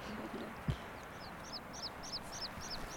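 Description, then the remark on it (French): Alpine choughs call in a steady series of about eight high, rising chirps over a constant windy hiss, heard on a mountain hike above the upper lake of Fuyi, with a single dull thump just before the calls begin. “On entend les chocards.”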